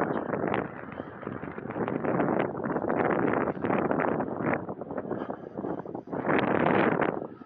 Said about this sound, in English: Boy, it's windy, huh?